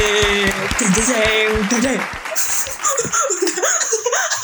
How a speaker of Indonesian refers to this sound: Pokoknya harus ada tepuk tangan ya. Pokoknya ya, harus, ada tepuk tangan. Gak harus ada tepuk tangan itu, yang itu.